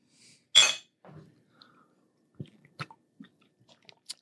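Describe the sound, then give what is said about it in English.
A close, sharp slurp as someone sips a drink, followed by a quiet gulp and a few small mouth clicks and smacks. No one is talking. “One sip before we start?”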